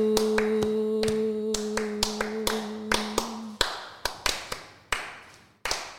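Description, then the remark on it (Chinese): Scattered applause from a few people after a traditional song is sung: sharp, irregular hand claps that thin out over six seconds, with a steady low tone lingering underneath for the first half before stopping. “好棒哦！掌声！”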